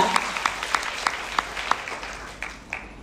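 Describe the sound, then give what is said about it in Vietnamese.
An audience claps for a few seconds for this year's potential Emerald achievers, a dense patter of hands with some sharper, roughly regular claps standing out, fading slightly toward the end. “Give them the big hand.”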